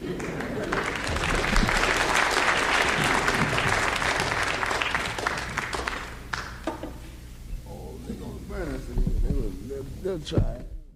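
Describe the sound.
A live audience claps steadily for several seconds, then the applause thins out and fades as scattered voices and a few light laughs come through.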